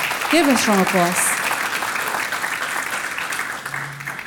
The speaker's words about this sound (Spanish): Denle ese fuerte aplauso.